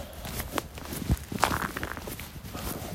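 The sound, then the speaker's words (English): Footsteps of someone walking outdoors, an uneven run of soft scuffing steps with a few sharper thuds, over a steady hiss of background noise and no talking. “So I'm doing only thing that I know how to do, which is, I don't know, go and walk around.”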